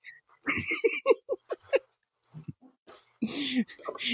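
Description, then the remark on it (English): A female smooth-coated dog moans and whines in a string of short, throaty bursts, pauses briefly, then lets out a longer, drawn-out groan, clear. “you just hear that moaning coming through the one of the doors on those”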